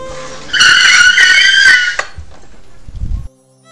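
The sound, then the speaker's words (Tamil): A cab brakes hard to a sudden stop after a passenger shouts to stop the car, with a loud, sustained tire screech lasting over a second, ending abruptly, followed by a low rumbling thud as it comes to a stop. “நீங்கள் சத்தமாக ஒரு வார்த்தை சொல்கிறீங்க அண்ணா டக்குன்னு கார் நிறுத்துங்க ப்ளீஸ் அப்படின்னு சொல்கிறீங்க அப்படியே பயங்கர சத்தமாக சொல்கிறீங்க அண்ட் அந்த கேப் டிரைவரும் காரை நிறுத்துறாங்க”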